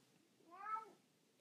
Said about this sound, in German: Ja, genau, sagt meine Katze auch